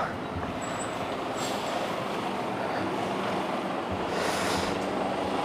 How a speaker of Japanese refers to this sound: あちょっとね今1台トラックが通りそうなんですけどごめんなさい今マイクをオフにする時間は間に合わないので音声編集もあれなんで